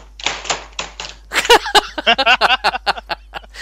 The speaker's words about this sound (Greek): Ακούω πληκτρολόγιο εδώ μεταξύ.